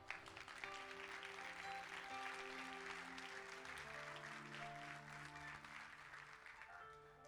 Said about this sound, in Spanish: Deme un aplauso.